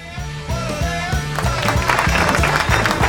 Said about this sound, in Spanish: Aplausos, che, bien ahí.